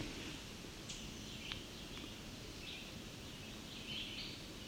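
A couple of short, sharp tick calls from a male chestnut-sided warbler, fairly faint and spaced about half a second apart, over steady outdoor hiss with a few soft chirps.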